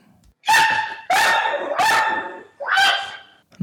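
A dog barks four times in close succession, loud, each bark drawn out with a slightly whiny, yelping tone. No one speaks over it.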